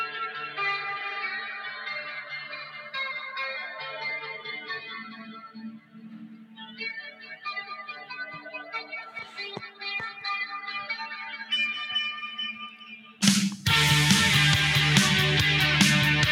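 An electric guitar plays a repeating, shimmering lick drenched in echo and chorus effects, then the full band crashes in loudly with drums near the end.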